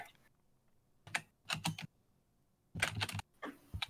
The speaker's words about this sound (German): Nein, äh, wir wollten auch durchaus mal im Rahmen unseres künstlerischen Auftrages Raum für ein bisschen ASMR schaffen. Und da kommt dein Tippen quasi gut rein.